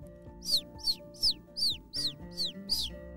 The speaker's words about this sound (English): It's a bird. It's like she's trying to come in.